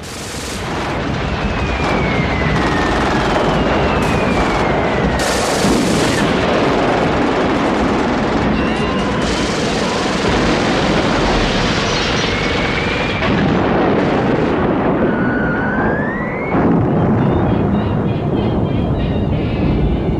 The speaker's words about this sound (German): das für ein Lärm dort draußen? Das sind die Bomben, mein Führer, die Bomben.